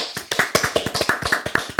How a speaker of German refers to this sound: Chibo hat auch einen dollen Grund zum Feiern, denn seit dem 8. Juni 2021 ist der 10. Kaffee-Report draußen, also die Jubiläumsausgabe. Kurzer Spontanapplaus mal, wir können alle mal klatschen hier.